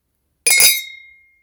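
Glasses clink together in one sharp, bright strike, leaving a high ringing tone that fades over about a second. No voices are heard.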